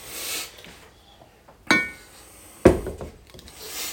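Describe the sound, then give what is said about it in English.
Two sharp knocks of a small glass being set down on a hard surface for a taste of tequila, the first with a brief bright ring, about a second apart. “I'll get you a little witch glass. I just need a like taste of it.”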